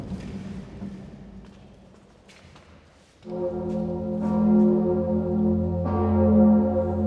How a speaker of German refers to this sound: Wir Frauen aus Aureljak bitten im Namen aller feinfühligen, sensiblen und zerbrechlichen Menschen von dem unheimlichen und furchtbaren Gedröhne der großen Glocke der Notre Dame verschont zu bleiben.